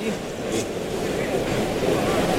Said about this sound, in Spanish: Por ahí oímos la respiración del toro.